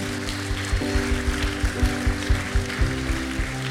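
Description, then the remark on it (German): An audience at a church service applauds after a prayer, a dense crackle of many hands with a steady pulsing beat running through it, over a held, sustained musical tone. “Komm, lass uns jedes Mal einen riesen Applaus geben.”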